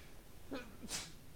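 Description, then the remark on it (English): A single quick sneeze: a short voiced intake followed by a sharp, hissy burst. It sounds fairly quiet, with no one talking over it. “Bless, Bless you.”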